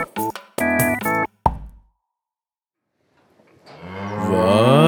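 A cow lets out a long, loud, drawn-out moo that swells to the end, following a few short tonal bursts, a single thump and a brief silence, in a radio advertisement for Chic cow shampoo.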